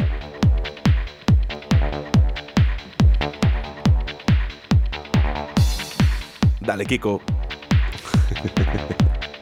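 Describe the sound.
An electronic dance track plays loudly, with a steady four-on-the-floor kick thumping about twice a second under sustained synth tones. Briefly, a voice calls out over the music near the end.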